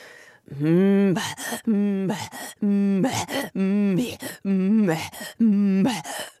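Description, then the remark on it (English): A single voice imitates Inuit throat singing: about five rhythmic cycles of a low, buzzing hummed tone alternating with sharp, breathy gasping pulses, fairly loud, with no other sound. “And then I, the one I was referring to earlier, though, is Inuit throat singing.”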